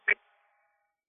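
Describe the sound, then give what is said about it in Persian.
A mobile phone call breaks up because of poor reception: a short, garbled burst of voice is chopped off abruptly, leaving a faint lingering tone that fades into silence within a second. “صدات قطع شد صدات قطع شد با, با چی تماس میگیری با موبایل موبایلت آنتن نمیده”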